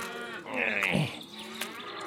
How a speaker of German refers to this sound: Oh Mann, die Kühe laufen auch wieder überall rum. Scheiß Offenstall.